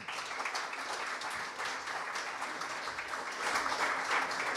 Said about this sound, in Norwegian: og det syns jeg vi kan godt gi en applaus for.